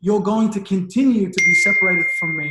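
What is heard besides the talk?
phone notification chime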